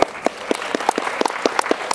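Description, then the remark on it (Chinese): An audience claps steadily, about a dozen sharp, bright hand claps at a quick, slightly uneven pace, moderately loud with no voices over them. “我们可以举手的一个掌声。”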